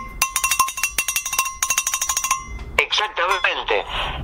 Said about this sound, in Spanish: Si vos vas a un acuario, vos vas a Epcot Center, a SeaWorld en Orlando, y en un momento vas a escuchar que hay un cacerolazo, son las belugas garchando.